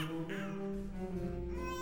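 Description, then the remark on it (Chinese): A baby held by a school headmaster cries in one steady, unbroken wail, a high, strained tone that holds for a couple of seconds at an even, fairly strong loudness, with no talking. “” 宝宝一点儿也不喜欢那样的叫声，他哭得更大声了。”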